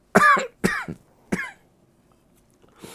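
coughing

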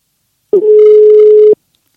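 telephone call ringing tone

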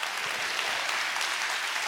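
audience clapping

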